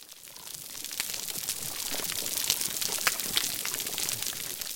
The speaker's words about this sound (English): you can hear the sounds of uh, fish, which are the grunts and drums and pops which are happening, interspersed throughout that recording.